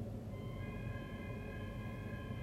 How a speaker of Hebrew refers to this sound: ככה זה נשמע. סימן אמת, סימן אמת. אנחנו מצלמים ומקליטים ויש אזעקה, והאזעקה הזאת היא חלק מהשידור החי, ואנחנו משאירים אותה כמו שהיא.